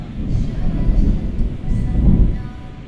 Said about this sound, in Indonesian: Nah kita lewati petir dulu. Lewati sama-sama.